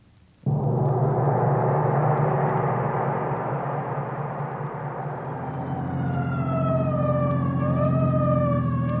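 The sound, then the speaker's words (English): An emergency vehicle siren blares in abruptly and stays loud, a steady howl over heavy engine rumble, its pitch starting to rise and waver toward the end. No one speaks. “So why the siren?”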